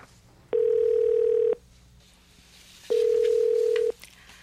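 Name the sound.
telephone call being dialed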